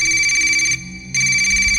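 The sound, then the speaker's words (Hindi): A phone lying in a room rings with a bright, electronic trill, sounding in two bursts separated by a brief pause. The ring is loud, with no one speaking. “मैं सोच में डूबा ब्रश कर ही रहा था कि कमरे में रखा उसका फोन बजा”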